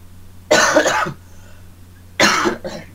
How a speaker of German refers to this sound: Entschuldigung an alle, falls die Huster laut sein sollten. Ich bin wirklich, ich komme seit vier Wochen auf keinen grünen Nenner mit der Erkältung.